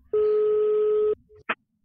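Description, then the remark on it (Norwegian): A single steady telephone ringing tone sounds for about a second as a caller phones the company Mars Nordic, followed by a brief click and then quiet, with no one speaking. “Jeg ringer.”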